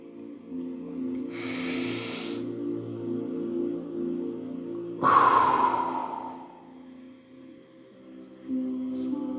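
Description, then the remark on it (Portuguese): Breathy airflow during a guided breathing exercise: a short inhalation followed a few seconds later by a longer, drawn-out exhale that gradually fades, over a quiet steady background hum with no talking. “Agora uma bem alongada.”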